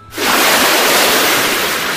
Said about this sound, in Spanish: Salpicadura.